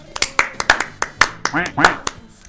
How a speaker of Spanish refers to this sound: Aplausos.